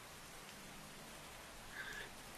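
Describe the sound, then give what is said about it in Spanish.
A stormy night: strong wind and steady rushing rain fill the whole stretch as an even wash of noise, with no distinct thunderclap standing out and no voices. “El viento sopla con fuerza y nosotros lo oímos conforme los rayos restallan en la lejanía.”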